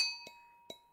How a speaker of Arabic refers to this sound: يلي ما بيعرف الرشاد هو عبارة عن هاون ومدقة مصنوعين من النحاس عادة بيستخدموهم لطحن الحبوب ومنهم حبوب القهوة